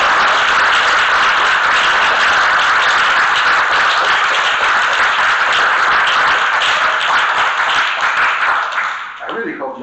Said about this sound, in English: clap louder later because we're not done yet.